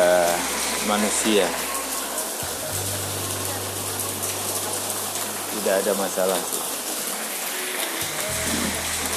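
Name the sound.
rain falling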